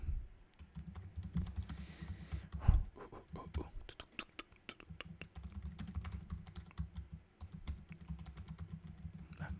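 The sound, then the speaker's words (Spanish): Rapid typing on a computer keyboard, a steady clatter of key clicks running throughout over a low background hum. “Ya ven, suena como que fuera secretaria.”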